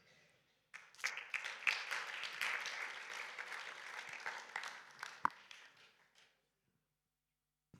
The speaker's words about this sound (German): Also das war ein schwacher Applaus, wenn man so schön liest.